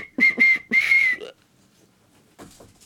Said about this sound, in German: Also du willst jetzt sagen, dass schreckliches Gepfeife ist oder schief und krumm ist?